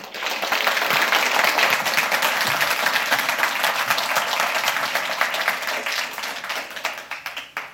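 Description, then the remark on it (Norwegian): Warm audience applause welcomes a speaker before a talk on the history of Bergen rock music, a dense wash of many hands clapping steadily for several seconds before gradually thinning out toward the end. “Gi han en varm applaus.”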